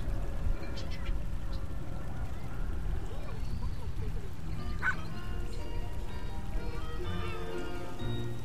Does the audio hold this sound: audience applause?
no